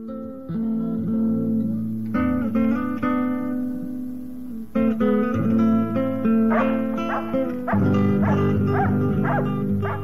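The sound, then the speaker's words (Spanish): A dog barks loudly, several harsh, tonal barks in uneven bursts over a steady droning background, with no one talking. “no hay perro tan inteligente como este”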